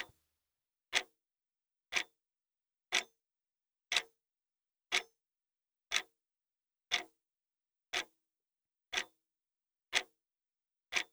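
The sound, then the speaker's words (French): A clock ticks steadily, one crisp tick per second, eleven evenly spaced clicks against complete silence, with no voices or other sounds. “À l'écoute de vos ressentis corporels, laissez le temps s'écouler au rythme du tic-tac de l'horloge.”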